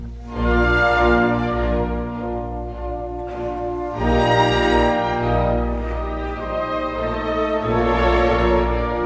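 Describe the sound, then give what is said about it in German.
Orchestral strings play continuously, a first violin carrying a slow, sustained melody above full, steady accompaniment, with swelling phrases and no talking; the violin melody imitates the sound of the Latin word "Pater", setting Jesus' words "Pater, dimitte illis" in tones. “Und jetzt hinhören. Erste Geige. Die Melodie sagt Pahater, Pahater.”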